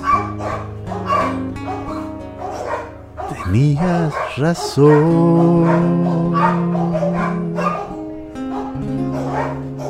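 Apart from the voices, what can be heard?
dogs barking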